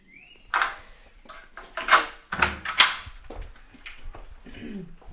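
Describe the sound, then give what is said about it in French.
A wooden office door being opened and shut, with a short creak followed by several knocking thumps and rattles, fairly loud, with no voices. “il y avait une porte de bois. Voilà, tout à fait. Donc ça, c'était une porte euh, fermée.”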